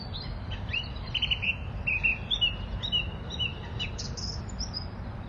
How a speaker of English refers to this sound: from London, England, on my patch at Wandsworth Common, listening to a song thrush on Christmas Eve. They start to sing in December, and it's a sign that the days are starting to get just that little bit longer now.